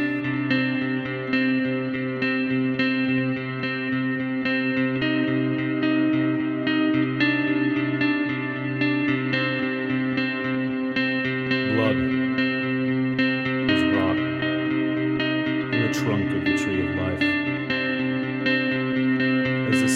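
A heavy metal song plays loud and dense throughout, with thick distorted guitars sustaining a wall of sound and occasional bright bursts near the end, with no talking over it.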